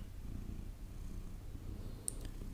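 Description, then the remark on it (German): A cat purrs steadily and close up, a low continuous rumble with a soft rhythmic pulse, plus one brief faint click near the end. “Sie schnurrt.”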